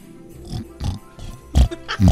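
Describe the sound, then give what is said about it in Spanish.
A person imitates a pig, making a series of four or five loud, nasal oinking snorts in a quick, uneven rhythm, with no other talking. “Haz el ruido de un animalito, de un puerco.”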